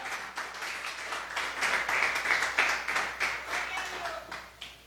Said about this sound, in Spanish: ¿Cuánto lo creen, hermano? Denle un aplauso al Señor en esta hora.